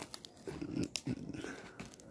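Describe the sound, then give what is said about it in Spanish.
A cardboard box full of dry leaves is put into a fire, the leaves and cardboard crumpling and crackling in irregular bursts, a few sharper crunches standing out over a steady rustling texture, with no voices. “Ah, va a meter una caja. Adentro un montón de hojas.”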